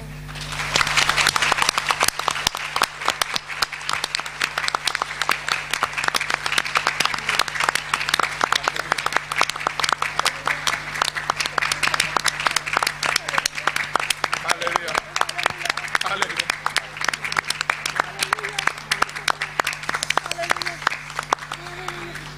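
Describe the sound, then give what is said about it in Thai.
An audience at a morning worship gathering claps in praise of the Lord's love, a dense, sustained wash of many hands clapping steadily for over twenty seconds at fairly even loudness, with a low hum running underneath. “แต่ว่าให้เราทุกคนปรบมือผ่านจากหัวใจของเราแล้วปรบมือสรรเสริญในความรักของพระองค์ ความน่ารักของพระองค์ในเช้าวันนี้ด้วยกันดีไหม”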